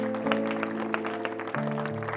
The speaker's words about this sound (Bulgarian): Нека им ръкопляскаме, докато излизат тук отпред. Просто за да се помолим заедно. Там отзад, заповядайте. Нека ръкопляскаме на всеки един от тия скъпоценни хора.